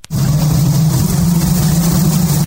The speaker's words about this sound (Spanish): ese sonidito pues son unas abejas, ¿verdad?